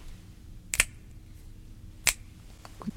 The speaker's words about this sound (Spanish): Chasquido